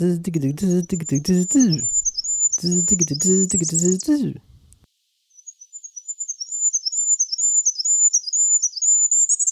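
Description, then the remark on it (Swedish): A very high, thin goldcrest song of rapid, rising and falling notes, first faintly behind a person talking, then continuing alone and clear after the voice stops. “Alltså kungsfågeln har egentligen två typer av läten.”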